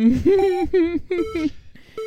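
A short, bright soundboard jingle plays in: a handful of quick tonal notes in a bouncy rhythm, loud, with a beepy, ringtone-like electronic character and no talking over it.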